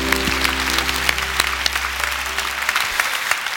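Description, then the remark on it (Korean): An audience claps steadily as applause of glory to God, a dense wash of many hands with sharp individual claps popping through, while a low hum sits underneath and fades toward the end. “우리 하나님께 영광의 박수를 드립니다”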